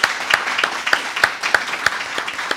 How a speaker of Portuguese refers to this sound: Se você não aplaudiu, eu vou aplaudir sozinho.